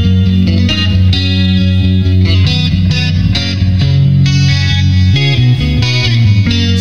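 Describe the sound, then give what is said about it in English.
A loud, distorted electric guitar solo plays over a full band, its lead line stepping quickly between sustained and shifting notes with a thick, effects-heavy tone. No one talks. “Like, check out the solo that he does here.”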